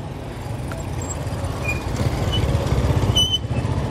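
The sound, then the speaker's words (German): Dense rush-hour street traffic in central Ouagadougou, Burkina Faso, with countless old, loud mopeds, small trucks and cyclists, a steady low engine rumble filling the scene, with faint high chirps and honks scattered above the continuous roar. “Feierabendverkehr in Ouagadougou. Durch das Zentrum drängeln sich unzählige alte, laute Mopeds, kleine Lastwagen und Fahrradfahrer.”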